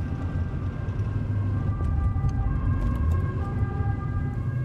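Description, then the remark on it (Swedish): A police car siren wails steadily as the car approaches, over a heavy low rumble of traffic and engine noise, fairly loud and continuous throughout, with no voices. “I backspegeln kunde vi båda se hur polisbilen närmade sig.”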